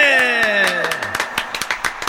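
Applause at the Cielo Nightclub as a performer is introduced: scattered, irregular claps rise after a loud tone that slides downward in pitch, then continue on their own as a patter of sharp hand claps.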